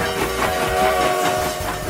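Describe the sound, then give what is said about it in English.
A steam train rolls along the rails with a steady, fairly loud rumble and hiss, a faint rhythmic clatter running underneath, with no one speaking. “Steam trains carried the bulk of consumer goods across the country.”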